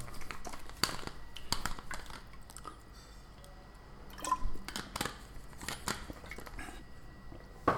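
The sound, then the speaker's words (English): Someone drinking water: a series of wet gulps and swallowing clicks at an uneven pace, fairly quiet, with no talking. “I need to drink some water.”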